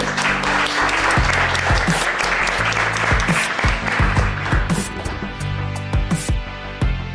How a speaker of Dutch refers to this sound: Eh, ik zou zeggen, applaus voor de experts.